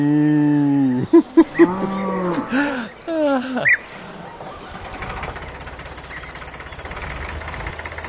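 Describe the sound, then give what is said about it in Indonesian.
A cow moos loudly: one long, drawn-out moo, then a few shorter bellows. A steady tractor engine rumble takes over for the rest. “Und die Kuh macht Mu.”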